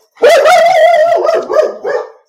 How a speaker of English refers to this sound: pardon me that's my, my guard dog